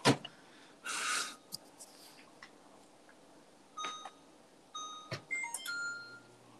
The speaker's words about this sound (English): Was that your fucking microwave? yes. God damn. It's a high tech microwave, my guy. Dude, it's not even high tech. You got a fucking high tech microwave.